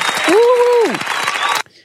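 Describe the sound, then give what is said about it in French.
Loud, dense applause with rapid clapping that stops abruptly after about a second and a half, joined early on by a sustained voice whoop that slides downward in pitch. “Euh, sur ces bonnes paroles, je, je, je te remercie, euh, je t'applaudis.”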